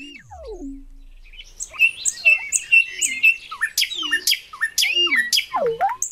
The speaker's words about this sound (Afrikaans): Die voël se stert beweeg op en af en dit speel 'n lied die keiser is in sy skik en sê: "Pragtig. Nou kan my twee nagtegale saam sing. 'n Duet."